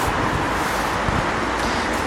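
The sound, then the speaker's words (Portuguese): Steady roar of street traffic with cars passing continuously, recorded out on the street, a broad wash of road noise at fairly constant loudness, no voices. “Yeah, eu estou a gravar na rua, por isso yeah, é normal que eu som carros e essas cenas.”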